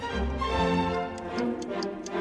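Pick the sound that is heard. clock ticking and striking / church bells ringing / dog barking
clock ticking and striking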